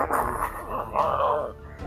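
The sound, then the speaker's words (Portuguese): A voice imitates a dog's low, rumbling growl directed at someone, sustained for about two seconds, wavering slightly in pitch before trailing off. “Tá, o cachorro dele tá rosnando pra você.”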